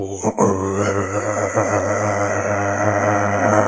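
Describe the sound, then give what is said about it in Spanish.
A person makes a steady, low, droning hum with their voice, imitating the constant rumble of an airplane cabin engine. It is loud, held without a break for nearly four seconds. “El sonido del avión y me pongo los auriculares y digo”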